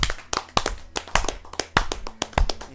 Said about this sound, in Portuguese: Primeira coisa, eu gostaria de pedir uma salva de palmas